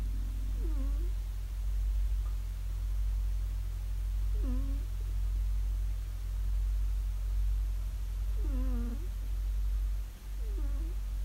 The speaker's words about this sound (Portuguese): Clementina e Naranjito, que estiveram a ressonar aqui ao lado durante todo o tempo em que estive a editar o programa. E a prova está aqui.